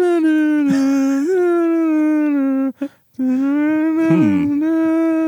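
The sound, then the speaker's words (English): A short homemade theme tune, carried by one loud, droning voice-like tone that holds long notes with slight slides and wobbles, broken by a brief pause midway, with no talking. “I, I, I would say that that song slaps.”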